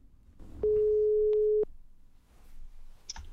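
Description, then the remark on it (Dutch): A telephone ringback tone sounds once: a steady, clear electronic beep lasting about a second, fairly loud, followed by quiet line noise and a faint click. “Ik ga bellen”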